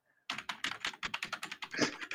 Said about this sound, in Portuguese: Mano, o teclado do figurante é muito alto, cara. É mecânica essa porra. Ou ele aperta no ódio, né?